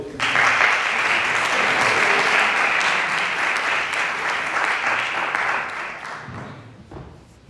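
An audience bursts into steady applause, a dense crackle of many hands clapping that holds loud for several seconds before thinning out and fading near the end.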